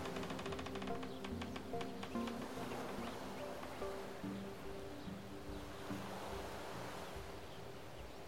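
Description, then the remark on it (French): A steady outdoor ambience at the edge of a large Canadian lake, by a wooden jetty, on a calm, sunny autumn day, with soft, continuous washing of small waves, a faint breezy hiss, and some thin tonal sounds drifting in the background; no one is speaking. “Vous êtes à l'autre bout du monde, allongé sur une chaise longue, au bord d'un grand lac canadien.”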